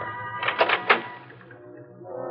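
A car door is opened by the driver reaching around after stopping in front of a gate, with a quick cluster of clunky latch clicks and a thump over a low steady engine hum that continues after.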